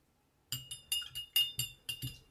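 Repeated bright clinks of a spoon stirring a Negroni cocktail in a glass, about seven quick metallic taps in an uneven rhythm, clear with no voices.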